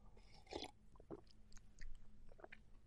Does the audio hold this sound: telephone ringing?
no